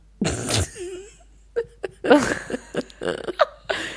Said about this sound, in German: Ja, aber ich nies auch ähm, alleine. Ich habe vorhin voll oft niesen müssen. So richtig mit Elan.